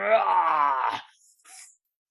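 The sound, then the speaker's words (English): A person voices the growl of an Oni as the wolf Luna bites into its leg: one long, rough, low groan lasting about a second, followed by a brief, breathy hiss as it trails off. “All right, so Luna bites into the Oni's leg, and the Oni just growls.”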